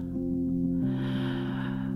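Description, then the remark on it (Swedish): A slow, deep breath drawn in through the nose during a guided breathing exercise, starting partway in and swelling steadily, over a soft, sustained musical drone with no talking. “Du kan såklart blunda och föreställa dig hur du på inandning också tillåter magen att bli stor och låter också bröstet expandera.”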